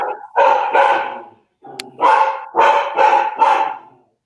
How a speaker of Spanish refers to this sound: Ay, perdón, está el perro con todo ahorita. No sé quién vino, déjame ver un segundito.